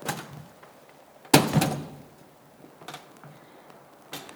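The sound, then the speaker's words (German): A heavy stone is set down in its place with one solid thud, followed by two fainter knocks a little later, otherwise quiet. “Dann müssen wir ein paar Schritte machen, der Platz von dem Stein, der gehört hierher.”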